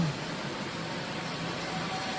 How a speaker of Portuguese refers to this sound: O ônibus passou justinho naquele fio que atravessa a rua.